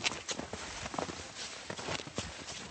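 Steady footsteps crunch softly through soft, deep snow, a regular walking rhythm of muffled, slightly squeaky steps, with no one speaking; people walking in snowshoes up a slope near Lake Aoki in the foothills of the Northern Alps, Japan.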